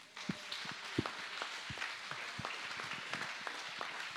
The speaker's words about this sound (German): Dass unsere Freunde von der Technik auch dann nachher auch noch gut auf mich zu sprechen sind. Lass uns unseren Technikfreunden mal einen Applaus geben.